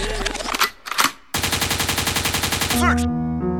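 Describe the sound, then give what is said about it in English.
A pair of loud gunshot effects rings out, then a rapid, rattling burst of automatic gunfire hammers on for over a second before giving way to a musical tone. “Liquid means rewind, the gunshot means forward.”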